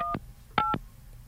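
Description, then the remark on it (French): Three short electronic keypad tones from a phone dialing an old phone number, two-pitch beeps with brief gaps, the last two closer together, clear with no one talking. “On appelle-tu mon ancien numéro de téléphone?”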